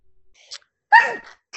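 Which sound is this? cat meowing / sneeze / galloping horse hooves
sneeze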